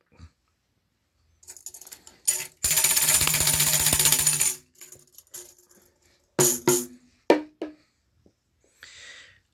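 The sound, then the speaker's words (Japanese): A mini bongo and tambourine hand-percussion set is played: a few scattered taps, then a sustained bright jingling shake for about two seconds, followed by several sharp drum hits and a soft final rattle. “あら、今、音楽が鳴りましたね。音が鳴りましたね。これは私愛用のミニボンゴタンバリンのセットでございます。”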